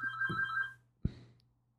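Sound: phone ringtone ringing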